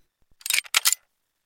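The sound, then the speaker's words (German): A safe's lever is pressed, giving two quick, crisp mechanical clacks as the lock releases and the safe door opens, fairly loud, preceded by a couple of faint soft taps, with no talking. “Und drücke jetzt den Hebel und hoffe, dass es aufgeht.”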